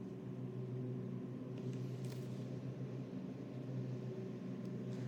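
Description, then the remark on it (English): A lawn mower engine runs steadily outside, a continuous low, buzzing drone with a rough rumbling texture that holds an even loudness throughout, with no voices. “Is someone mowing?”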